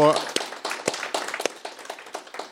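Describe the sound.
An audience applauds a guest at the end of a talk, with dense, irregular clapping that carries at a steady, moderate loudness for a few seconds, after a brief voice at the very start.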